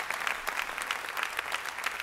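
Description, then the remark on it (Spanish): An audience applauds in a steady, dense patter of many hands clapping at once, holding an even, moderate loudness for the whole stretch with no voices over it. “Ah, no van a aplaudir.”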